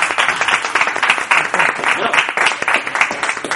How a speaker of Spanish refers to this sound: Pues gracias a ellos por venir. Un aplauso a ella, a mí, ¿no?